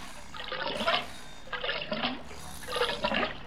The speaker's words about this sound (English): The method involved dismembering the corpse in a kiddie pool, draining the blood,